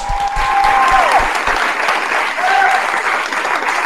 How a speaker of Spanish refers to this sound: Sí, un aplauso para ella, le voy a poner... El ponele, ponele el aplauso loco.